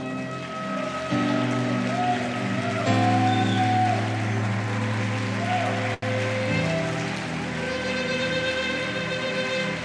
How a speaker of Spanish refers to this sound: Yo quiero que suelte los frascos un momento y le un fuerte aplauso al Señor.